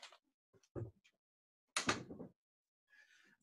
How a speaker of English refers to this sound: here hold on let me close my door real quick